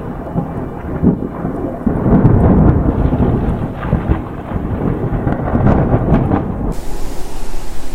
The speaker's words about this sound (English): The rain is too heavy and the wind is too strong to keep flying.